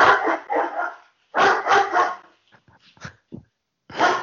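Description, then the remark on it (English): A dog barks in loud, clustered bursts: a pair of barks, a quick run of several more, then short yips and whines before another bark at the end. “Uh, fucking, fucking dog here cheapest.”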